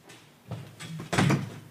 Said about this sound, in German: Na, jetzt ist, ich mach kurz die Tür auf, wenn ah, warum? Ist, na, ne, weil ich Platz zur Seite brauche.